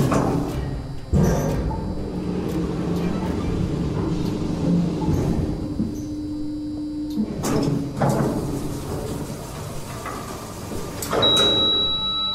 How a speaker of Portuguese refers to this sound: Ela pôde ver o primeiro passo da enfermeira sem rosto para fora da sala, enquanto a porta do elevador fechava.